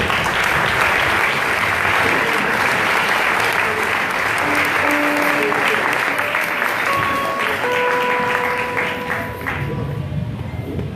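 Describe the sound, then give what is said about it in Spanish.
Loud, sustained applause from a church audience after a prayer blessing the children, a dense steady roar of clapping that holds for about ten seconds, with a few faint tonal notes and cheers mixed in before it eases slightly at the end. “Dame un aplauso fuerte.”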